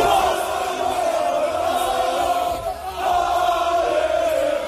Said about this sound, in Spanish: Y ese es el cántico peruano en esta Copa del Mundo.